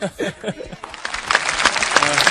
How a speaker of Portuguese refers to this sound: Aplausos agressivos pra você, porque isso foi absurdo.